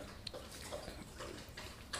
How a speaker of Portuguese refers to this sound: Vou estar bebendo água, acho que dá para vocês ouvirem aqui, né?